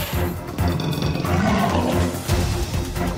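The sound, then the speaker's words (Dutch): Deep, rumbling roars and growls of a group of hungry tigers fill the few seconds, loud, rolling on continuously with no one speaking. “Daar wacht hen het goud en een groepje hongerige tijgers.”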